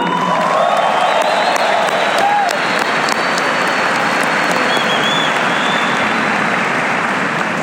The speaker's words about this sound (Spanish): Un aplauso para Amway.